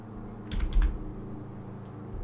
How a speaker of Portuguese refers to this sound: Só vou pegar um versículo aqui. É que o meu, meu teclado tá ruimzinho de digitar, mas pode.